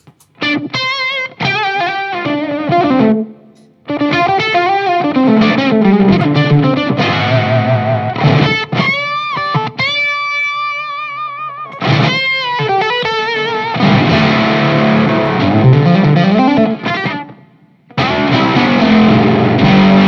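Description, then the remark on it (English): A loud, driven electric guitar played through an overdrive effects pedal, playing chords and melodic runs with sustained, saturated notes and brief pauses, heard alone without any talking. “the differences between them is maybe less when you have a like a Jan Ray after.”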